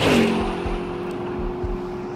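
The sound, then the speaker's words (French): A Peugeot 305 car speeds along the Lille–Ghent motorway, its engine roaring with a steady droning hum and rhythmic low thumps, loud. No one speaks. “La 305 fonce à toute allure sur l'autoroute Lille-Gand”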